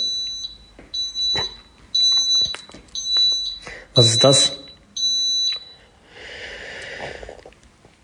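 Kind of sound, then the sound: signal or alarm, smoke alarm beeping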